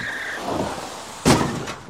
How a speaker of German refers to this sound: Die Forststraße ist an diesem Abend nass und rutschig, als sich ein Sportwagen nähert. Mit dem Fußballer Lutz Eigendorf am Steuer. Das schwarze Auto kommt von der Straße ab und prallt gegen einen Baum.